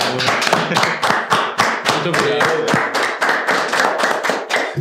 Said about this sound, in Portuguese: O que, que o nosso convidado merece, galera? Uma salva. de palmas.